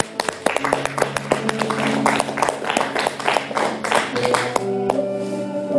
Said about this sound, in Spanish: ¿Cuántos le dan aplausos, señores?